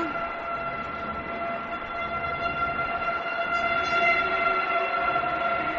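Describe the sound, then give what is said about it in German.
American football fans in a stadium make a steady, droning racket. Sustained horn-like tones hold over a broad wash of crowd noise, fairly loud and continuous throughout, with no talking. “So, und jetzt scheint es so, als würden die Phantoms und Universe-Fans so langsam ein bisschen Alarm machen.”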